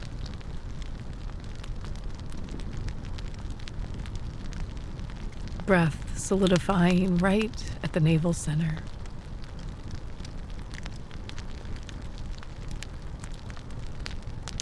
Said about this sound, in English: And perhaps you notice the sounds of wood burning.